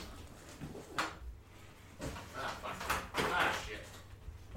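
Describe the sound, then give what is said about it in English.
A cat, Ebenezer, batting at and pouncing on a cardboard box, with a few sharp thumps and scuffling bursts at irregular intervals, and some voices faintly in the background. “There's a cat. He's attacking a box.”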